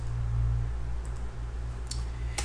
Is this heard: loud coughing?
no